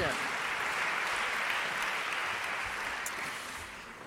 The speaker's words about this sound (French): Voilà, applaudissez-la très fort.